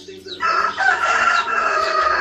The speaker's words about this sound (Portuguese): Alto tá o canto do galo. tá bonito esse galo, viu? Não vai matar o bichinho não, viu? Muito bonito, né? Coisa boa, né? Galo cantando assim de manhãzinha,